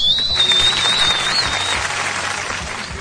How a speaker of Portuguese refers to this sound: Caio Fernandes, salve de palmas.